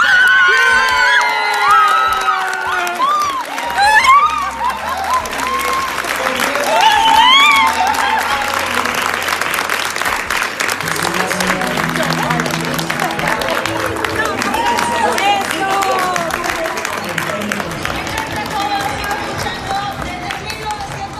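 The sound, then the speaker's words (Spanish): A lively crowd cheers and claps steadily as award winners are announced, with shouts and whoops rising over continuous applause and a busy, reverberant din. “gritaba como que yo, yo estuviera vendiendo, no sé, verduras en la plaza. Pegué grito, salté, abrazaba hacia mi jefa, ¡vera ganamos!”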